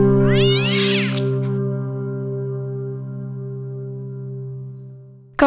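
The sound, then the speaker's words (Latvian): A tomcat lets out a loud, drawn-out howling meow that wavers in pitch at first, then holds a long steady wail for several seconds, with no voices around it. “Viņš bija stingrs inspektors, un visi kaimiņu runči kauca un nedēļām ilgi laizīja vātis, kad viņš gāja uz revīziju.”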